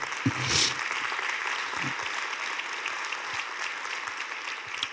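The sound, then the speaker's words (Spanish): A church audience applauds Jesus, a dense, even wash of many hands with a brief louder swell near the start, continuing without any voices. “Dele un aplauso a Jesús si usted lo cree.”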